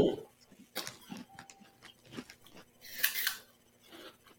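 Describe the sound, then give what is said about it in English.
A crunchy snack being chewed: irregular, sharp crunches of moderate loudness, with one louder, longer burst of crunching near the end and a faint murmured voice now and then. “Mm, mm, mm, I love a good snack.”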